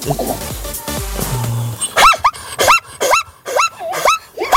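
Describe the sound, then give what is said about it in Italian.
A zebra calls in a rapid series of about six sharp, barking yelps with a squealing, rising-and-falling pitch, loud, after a short jumble of other sounds at the start. “Mi fai risentire a zebra un attimino.”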